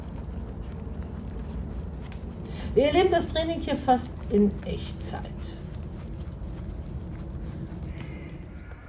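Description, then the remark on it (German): Racehorse hooves plod along at a walking pace, heading from the trotting ring toward the racetrack, over a steady outdoor rumble, with a voice speaking briefly partway through. “Vom Trabring aus geht es nun Richtung Rennbahn.”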